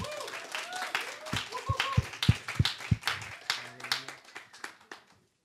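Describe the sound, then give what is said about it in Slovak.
An audience at a conference breaks into applause to welcome the discussion panelists, many hands clapping in a dense, crackling patter with a few sharp louder claps standing out, swelling briefly before tapering off into silence. “E, keď hovoríme, a môžeme ešte privítať potleskom našich diskutujúcich.”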